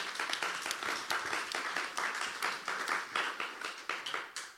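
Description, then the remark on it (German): Audience applause, a steady dense patter of many hands clapping throughout, fairly loud with slight swells, no voices over it. “Total cooler Applaus.”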